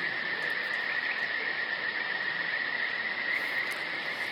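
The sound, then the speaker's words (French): A dense, unbroken chorus of frogs trilling in a forest at night, steady and fairly loud throughout, with no pauses and no voices. “Je suis dans la pénombre et je suis dans la forêt. Et j'entends le chant des grenouilles.”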